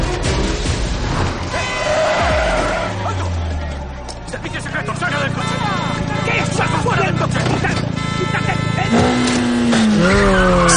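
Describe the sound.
A car's engine roars and drops in pitch, then tires squeal sharply as it skids to a halt on a street, stopped by a man running out in front of it, all loud over a busy background of voices and street commotion.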